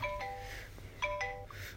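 A kitchen timer alarm on a Google Assistant device, set while cooking zosui, chimes in short electronic tone bursts, two-note patterns repeating about three times over a faint background hum. The tones are clear and moderately loud, with no talking.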